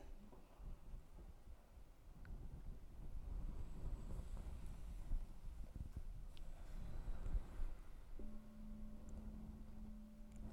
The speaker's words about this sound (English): So, hearing the sound of the bell can connect again to your own experience. So, hearing the sound of the bell, you can let go all of the words. You can allow what's useful to stay with you and let go all the rest.